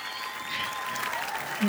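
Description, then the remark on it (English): A short burst of crowd applause, steady dense clapping at moderate volume for under two seconds, with a brief low tone near the end. “Let's have some virtual noise.”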